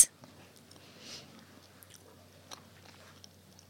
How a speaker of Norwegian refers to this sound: Begynn å proppe i meg eplekake, så får du prate òg.